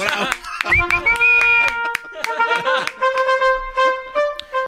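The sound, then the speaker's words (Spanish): Scattered, irregular hand claps ring out over a sustained, tonal melodic sound, with sharp bright slaps breaking through at uneven intervals for several seconds. “Va a hacer llorar con tus aplausos.”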